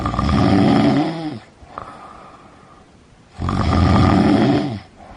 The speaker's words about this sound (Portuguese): Saciado seu apetite, o lobo deitou na cama, dormiu e começou a roncar muito alto.